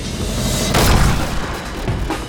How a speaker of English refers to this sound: The first bullet blasted through the backseat car window and tore through the flesh of his leg. Immediately, the adrenaline lit his insides up. Two more shots, in the legs, more adrenaline.